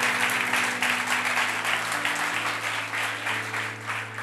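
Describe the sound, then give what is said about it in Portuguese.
A crowd applauds Jesus during a sermon, steadily, a dense wash of many hands clapping at once, loud, with a sustained organ-like tone humming underneath. “Pode aplaudir Jesus.”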